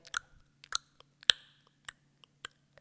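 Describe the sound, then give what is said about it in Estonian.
A voice imitates a breastfeeding baby's wet clicking smacks as the suction vacuum releases and air gets in: about eight sharp mouth clicks at an uneven pace, one noticeably louder, with quiet gaps and no talking. “jah, iga kord, kui ta seda laksu kuuleb, ta tegelikult teab, et see vaakum vabanes.”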